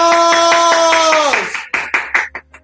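Steady rhythmic applause over a sustained tone that slides downward in pitch, then the clapping slows into a handful of separate, fading claps.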